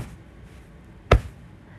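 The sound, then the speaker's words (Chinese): A single dull thump of a pillow being tapped to send Morse code, attempting SOS in place of speaking: one short muffled hit standing alone against faint steady background hiss, with no voices. “用枕头打摩斯电码代替说话。”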